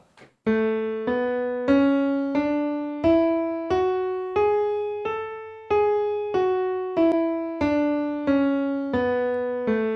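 A piano plays a major scale one note at a time, each key struck cleanly and held at an even pace, rising and then coming back down, with no voices.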